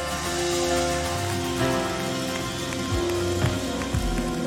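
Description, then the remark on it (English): A church audience cheers and applauds for God, a steady, dense wash of clapping that holds for several seconds, with sustained musical tones humming underneath. “Give Him one more cheer before we do it.”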